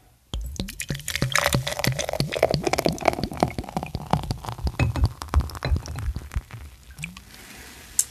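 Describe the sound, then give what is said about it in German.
A foaming drink is poured into a glass in a room, a steady splashing stream full of fizzy crackles and pops that thins out into quieter bubbling near the end, the foam almost overflowing. “Beim noch ein, einschenken neige ich das Mikrofon noch mal ein bisschen.”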